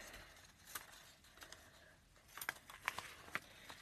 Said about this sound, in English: I have three different colors of paper and some scissors. So I'm just going to be cutting random strips of pieces of paper and gluing it into the book, or taping it actually.